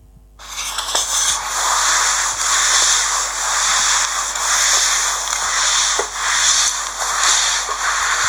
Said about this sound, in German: Du hast äh, gewischt. Ah, genau. Ja, das, das ist der Wischmob.